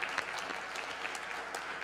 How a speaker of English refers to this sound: Two years ago, Calvary Community paid off its mortgage, so we are a debt free church. I think we should applaud that.